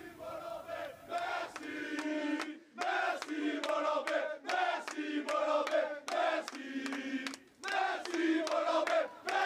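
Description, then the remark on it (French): Football players chant loudly in unison in their team's locker room, rhythmic bursts of shouted syllables with short pauses between, echoing in the enclosed room. “Et puis on va regarder euh, et surtout écouter ces images tournées dans, le vestiaire belle euh, bellelois hier, évidemment, hein.”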